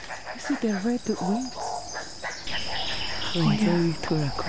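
Raucous, harmonic screeching calls from a large bright blue turaco in dense forest foliage come in two bursts, one around the first second and another near the end, ringing out over a steady high insect drone.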